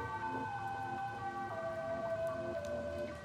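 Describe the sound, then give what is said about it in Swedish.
An ambulance siren wails steadily on a raw, cold night at the Sveavägen and Tunnelgatan crossing in Stockholm, the ambulance carrying an injured man to hospital, its tone sliding slowly downward over a few seconds, set against a constant hiss that sounds like rain. Nobody speaks. “Polisen är på plats och ambulansen har åkt mot Sabbatsbergs sjukhus med den skadade mannen.”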